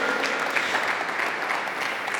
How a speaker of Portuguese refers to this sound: Tem alguém para dar um amém, dar um aplauso a Jesus aí ou não?